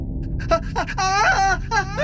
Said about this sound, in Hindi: तभी अचानक से उन्हें ऊपर के किसी कमरे से किसी के जोर से चिल्लाने की आवाज आती है यह आवाज किसी लड़की की है